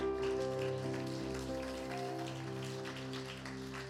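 An audience claps steadily in a dense, continuous wash of applause lasting the full four seconds, with sustained musical tones playing underneath and no voices.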